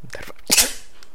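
A single sharp sneeze bursts out close to the mic, preceded by a brief voiced intake of breath, then fades quickly into quiet.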